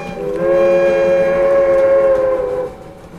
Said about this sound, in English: As Moni's finale hits its climax, the first train of the day draws squealing into Junction across town.